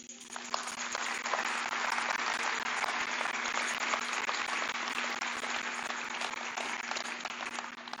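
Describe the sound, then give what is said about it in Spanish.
An audience applauds in praise of God, dense overlapping claps forming a continuous roar of even loudness for the full eight seconds, with a steady low hum running underneath. “Dale un aplauso.”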